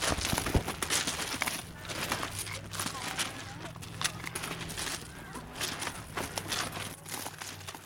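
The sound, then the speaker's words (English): Footsteps of litter pickers crunch steadily across a pebbly or sandy beach, a series of gritty, irregular steps with a soft outdoor hiss in the background. “so this is the gentle sound of litter pickers crunching across.”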